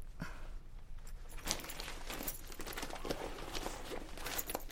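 Keys jingle and clink repeatedly amid soft rustling as someone rummages through a bag for the key to a locked office door, with several brighter metallic taps standing out.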